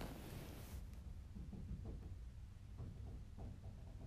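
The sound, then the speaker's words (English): Muffled, irregular thuds of someone banging on a door, a handful of dull knocks spread over a few seconds, fairly faint and heard alone without any talking. “Sorry, yeah, someone's well, like someone's like banging on someone's the Someone's about to like barge in our room and be like, "What are y'all?”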